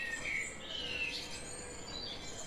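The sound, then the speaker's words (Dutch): Small birds chirp faintly, a few thin, high tweets scattered over a steady hiss of quiet background noise, with no one talking. “Eh, je hoort de vogeltjes fluiten.”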